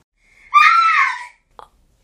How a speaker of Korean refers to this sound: 새벽 2시쯤 날카로운 비명을 듣고 눈을 떴다.